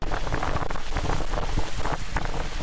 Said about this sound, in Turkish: Bursa'da ise dehşetin adı hortumdu. Sanayi sitesini vuran hortum 40 saniye sürdü ama çatıları böyle uçurdu. 20 iş yeri ve 14 araç zarar gördü. Bir kişi kopan çatı parçasıyla yaralandı.